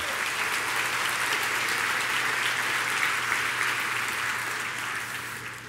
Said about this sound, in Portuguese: Pode dar salva de palmas, irmão. Dá um glória a Deus aí.